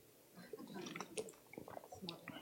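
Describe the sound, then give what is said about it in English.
Someone quietly sips water from a bottle, with a few soft wet clicks, gulps and swallowing noises over about two seconds and no talking. “I, I thought smart this time, I brought water.”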